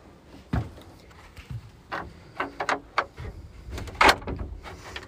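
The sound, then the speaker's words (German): A door is pulled shut with a series of scraping bumps and rattles, then a louder clunk as it closes, with no one talking. “Wir machen die Tür zu.”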